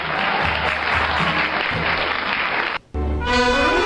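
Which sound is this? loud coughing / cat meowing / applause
applause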